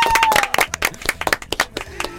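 A short burst of applause welcoming a special guest, the show's producer: several people clapping in quick, uneven, overlapping claps, sharp and fairly loud, with no voices over it.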